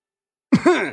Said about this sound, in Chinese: 东家面露尴尬，大声的咳嗽一声